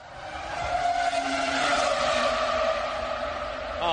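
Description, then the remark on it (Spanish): Fernando Alonso's Renault R25 Formula One car engine screams at high revs, a steady, piercing high-pitched wail with layered harmonics that holds loud for several seconds with no talking. “algo que tú estás muy acostumbrado pero que el paddock entero se paralizó mira cómo se sentía Hamilton al, al escuchar el R25 de Alonso”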